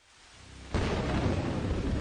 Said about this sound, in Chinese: 夜色漆黑，雷声滚滚，三辆警车打着强光冲出雨帘，强行拐上人行道。